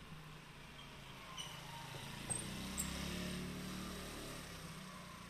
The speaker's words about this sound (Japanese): 僕の後方からあバイクが来てたんで、立ち止まってですね、バイクが右から左に駆け抜けていく音を取ろうかなと思ったんですけど、僕の、ま、目の前に来るちょっと手前でですね、右折していきましたので、右から奥の方でぐーっとやる音が聞こえたんじゃないかなと思います。